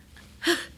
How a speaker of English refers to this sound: Bless you.